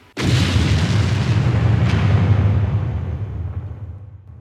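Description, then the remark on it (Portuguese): A war sound effect of explosions and gunfire: a sudden loud explosion erupts into a long, deep rolling rumble, with a brief sharp crack partway through, before slowly fading out. No voices. “Pou, pou, tiro, bora, bomba. Capum. Bum!”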